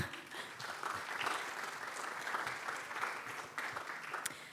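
Audience applause at an interactive worship event, thanking the organiser of the stations set up there; a steady dense patter of many hands clapping at an even level with no voices standing out.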